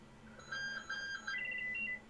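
A short electronic telephone beep pattern: a few clear tonal bleeps in quick succession, then a slightly higher two-note repeat, moderately loud with no talking.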